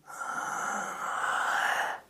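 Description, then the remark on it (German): A single forceful, breathy "haaa" exhale held steadily for about two seconds, the yoga lion breath, done sitting on the heels with hands on the knees, head slightly raised, tongue stuck out and gaze on the point between the eyebrows, with a person voicing a hoarse imitation of a lion's roar and no words spoken. “setzt sich dann auf die Fersen, gibt die Hände auf die Knie und dann hebt man den Kopf leicht nach oben, streckt die Zunge raus, schaut zum Punkt zwischen den Augenbrauen und fängt dann an zu brüllen wie ein Löwe.”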